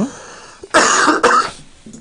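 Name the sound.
cough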